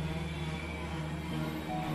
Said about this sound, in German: Unfähig, mich zu bewegen, stehe ich einfach nur da, während der Zug hinter mir mit lautem Quietschen zum Halten kommt.